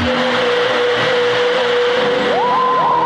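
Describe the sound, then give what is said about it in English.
Eerie electronic classic Doctor Who theme music from a BBC audio drama, The Curse of Peladon: a steady, whining synthesizer tone holds, then swoops upward in pitch near the end, over a loud hissing, rumbling wash. “classic Lightning Doctor Who tears theme.”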